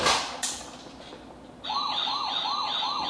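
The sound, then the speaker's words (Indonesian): A fire engine siren kicks in partway through, a rapid rising-and-falling wail repeating about every half second, loud, with no one talking. “Itu pemadam.”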